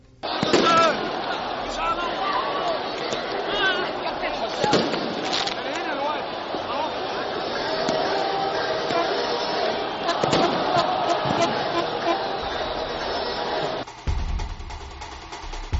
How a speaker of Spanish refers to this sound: Un tremendo tumulto, una enorme confusión, miles de personas invadiendo el terreno de juego y eh, un fuego en las gradas. Nadie sabía lo que estaba sucediendo.